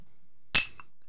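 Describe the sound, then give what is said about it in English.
A single sharp clink of whiskey glasses as they are handed over, bright and brief, followed by a faint lingering ring and a quieter tap amid otherwise quiet surroundings. “Well, you guys are each handing whiskeys over to me, and I'm not drinking the whiskey this week, so I'm like, well, I'm just going to take both your glasses and go, yay.”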